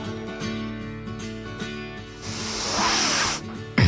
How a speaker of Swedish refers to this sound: Jag ska bara dricka upp Resorben.